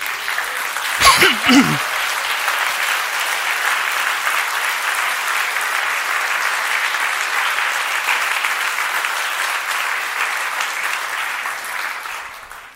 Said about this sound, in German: Jetzt habe ich mir gedacht, wir könnten aufstehen und unserer Technikmannschaft freundlichen Blick zuwerfen und vielleicht einen Applaus, wie ihr denkt.